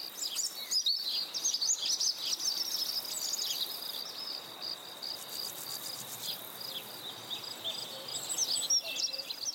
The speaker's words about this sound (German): Sie machen zusammen Aufnahmen mitten in der wunderschönen Natur. Mitten im Wald mit all den Geräuschen.